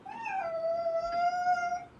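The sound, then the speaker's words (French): A cat named Pistache lets out one long, drawn-out yowl, rising slightly then holding a steady whining pitch for about two seconds, fairly loud with no talking. It is complaining because its litter has not been changed. “Ah, oh, zut Il râle parce que j'ai oublié de changer sa litière.”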